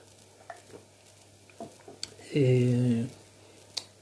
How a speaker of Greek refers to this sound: Μισό να πιω ένα ε, νερό.